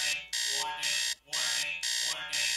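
An alarm clock rings loud in bright, harsh pulses, four bursts repeating in a steady on-off rhythm with only short gaps between them.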